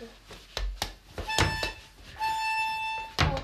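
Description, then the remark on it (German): A person imitates a train horn with their voice, holding one steady, buzzy tone for about a second, after a short tonal hoot and several sharp knocks, with another thump at the end. “Und jetzt, und jetzt bin ich eine, eine Zughupe.”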